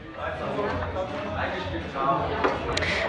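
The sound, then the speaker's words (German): Sharp knocks and clacks of a table football game at a tournament, a few brief hits, with the busiest cluster near the end, heard under a steady murmur of crowd chatter. “jetzt hören wir mal rein, wie es klingt, wenn Gola in der Abwehr spielt”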